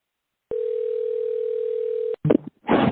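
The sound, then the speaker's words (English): A steady, continuous telephone dial tone hums for about a second and a half as a call is placed from a studio to a New York number, then cuts off abruptly, followed by brief bursts of a voice speaking. “Yes, go ahead and pick up the phone. I'm going to call you right now.”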